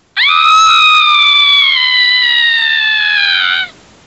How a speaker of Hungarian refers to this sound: Sikoly. Azaz. Hajjaj. Hajjaj. Sikoly Micsoda asszociáció.